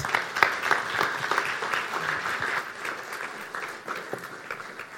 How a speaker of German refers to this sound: Nochmal einen Applaus.